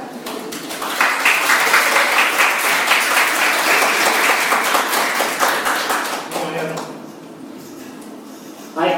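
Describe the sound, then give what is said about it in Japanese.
An audience breaks into dense, steady applause for the teacher at the end of a talk, many hands clapping together for about six seconds before it thins out and fades into a quieter murmur. “じゃあ、あの皆さん、先生もう一度拍手をお願いします。”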